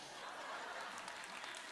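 An audience applauds during a sermon on Psalm 30:11, in a steady, dense wash of clapping that holds at an even level throughout, with a faint chuckle or murmur mixed in.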